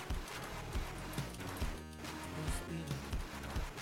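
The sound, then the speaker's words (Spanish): A donkey's hooves clip-clop in a video game in a steady, repeating rhythm, moderately loud, layered over a dense, busy backdrop of other sounds, with no one talking. “Oye, y nada que era el burro culiado que salía en la película, ¿no?”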